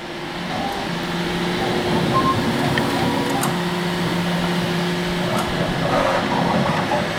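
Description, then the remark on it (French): A 3D printer hums steadily with sustained tonal whines that shift pitch in stretches, like stepper motors moving, over a constant mechanical drone, as it prints plastic parts to be tested on drones. It sounds continuous, with no talking. “C'est quoi ça C'est une imprimante 3 Elle fait.”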